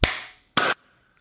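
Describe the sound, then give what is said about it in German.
Two sharp, bright hand claps, meant to be simultaneous after a countdown of three, two, one, land about half a second apart, apparently because of lag: the first rings out briefly before the second, shorter one; no voices. “Kinder, wie sie gleichzeitig geklatscht haben.”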